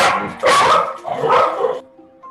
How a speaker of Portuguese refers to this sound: Voltando aqui, galera, teve um pequeno corte, como vocês perceberam. A minha estrutura aqui não é das mais profissionais. tem o minha cachorra aqui que ela acabou latindo, atrapalhou algumas coisinhas, mas beleza.